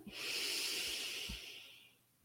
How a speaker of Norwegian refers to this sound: Puster dypt inn når du er klar.